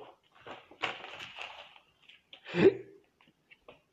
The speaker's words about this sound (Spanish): Ah, perdón gente por el hipo.